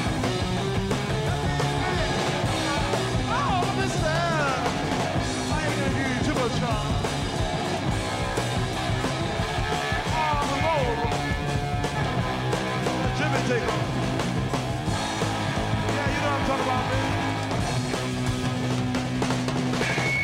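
A dense, loud live rock performance recorded at Woodstock, with driving electric guitar and pounding drums, steady and full throughout, with crowd noise and shouts faintly mixed in.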